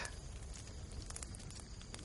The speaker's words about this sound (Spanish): De noche, Jesse y su grupo rodean una hoguera.